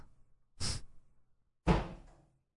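Two dull bumps of a cat against a closed door, about a second apart, moderately loud, with a faint low rumble between them and no talking.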